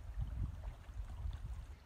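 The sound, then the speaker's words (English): Ocean water laps and sloshes against rocks in a low, continuous rumble with irregular small surges, fairly quiet and steady, with no voices. “Right now, I'm sitting by the ocean on the rocks and watching the water.”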